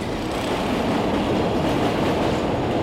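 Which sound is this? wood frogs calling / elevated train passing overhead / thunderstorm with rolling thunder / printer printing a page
elevated train passing overhead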